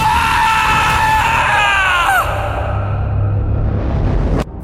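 A man lets out a long, loud scream of terror as he wakes from a nightmare, his voice wavering and cracking before it breaks off, over a low rumbling background that ends with a sharp cut.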